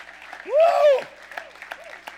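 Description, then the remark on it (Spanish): A church audience claps steadily to greet the Lord, a dense patter of many hands, while one voice lets out a loud, rising, drawn-out shout partway through before the clapping carries on alone. “Vamos a aplaudir, vamos a saludar al Señor.”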